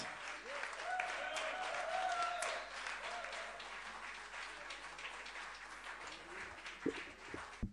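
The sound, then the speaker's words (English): A crowd applauds the Little Giants at the second session of the Note Project series run by FMR with the MDDA and the Cape Town Music Academy, a dense wash of many hands clapping that holds level and then gradually thins out, with a couple of sharper claps standing out near the end. “Let's give them a big round of applause, ladies and gentlemen, the Little Giants.”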